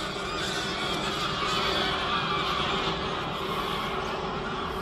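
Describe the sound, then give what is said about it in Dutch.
A large flock of geese honks in a dense, overlapping chorus, loud and continuous as the birds lift off while a helicopter flies over, then fly in a circle, with a low steady rumble underneath. “En met dat een helikopter overvliegt, stijgt er een enorme ploeg aan ganzen op. En die maken zo'n hele mooie cirkel zo voor mijn neus. Nou, die kunnen een enorm kabaal maken, zoals je hoort.”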